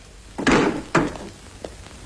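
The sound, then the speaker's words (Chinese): General He Long pushes open a door as he arrives at a meeting: two heavy wooden thumps about half a second apart, then a small latch-like click. The sound is fairly loud and has no voices over it. “这时，贺龙将军推开门，特意赶到会场”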